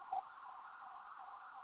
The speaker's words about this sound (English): oh, there's an ambulance.